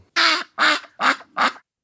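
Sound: duck quacking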